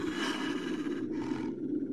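Wild wolves hidden in the darkness of a forest growl in a deep, rumbling snarl that stays loud for a couple of seconds, with only a brief dip partway through and no voices.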